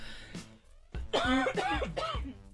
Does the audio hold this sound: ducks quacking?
no